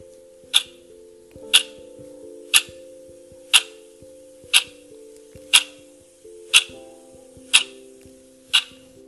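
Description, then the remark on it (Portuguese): A clock ticks steadily about once per second, each crisp, bright tick standing out clearly over soft sustained musical tones playing underneath. “MEDITAÇÃO DO TIC TAC”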